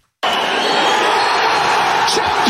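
A loud, dense roar of Wrexham football supporters who invaded the pitch at the end of the match to celebrate the title that made their club champion and sent it up to the fourth English division, countless voices merging into steady cheering that starts abruptly and holds without pause to the end.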